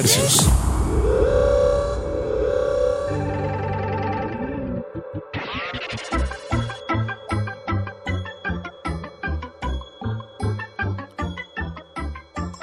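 A song by an Argentine artist that opens on a thick, sustained wash of tones, then settles into a steady, pulsing beat with bright layered melody over it, played loud with no talking.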